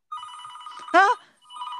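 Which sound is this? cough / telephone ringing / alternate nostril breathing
telephone ringing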